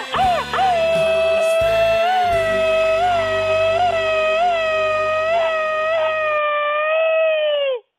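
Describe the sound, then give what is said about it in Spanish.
A long, high-pitched Mexican machine-gun yell: one sustained falsetto cry broken by regular rhythmic pulses, loud and steady for about eight seconds, with soft music underneath for most of it. “Échale, échale grito ametralladora.”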